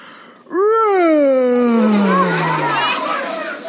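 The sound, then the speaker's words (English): A person imitates the yawn of the gunny wolf in a told story: one long, drawn-out vocal sound that swoops up and then slowly sinks lower for about three seconds, with faint children's chatter in the background. “And the gunny wolf yawned. A gunny wolf yawn.”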